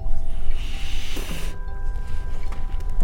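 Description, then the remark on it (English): A sea turtle with a shell the size of a small coffee table, being lifted with ropes to be weighed, breathes in a loud, airy rush that swells and ends abruptly after about a second and a half, like a balloon inflating, over a steady boat engine drone. “The sound these animals make when they breathe is amazing, like a balloon being filled.”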